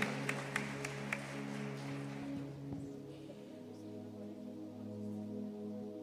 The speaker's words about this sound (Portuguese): Salva de palmas, gente, para a pastora.